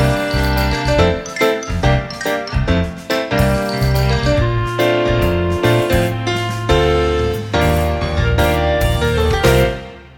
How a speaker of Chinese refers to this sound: 然后刚刚大家也听到了，我们更新了一个节目的片头和背景音乐。嗯，这都是呃在这个好朋友的帮助之下才能够完成的。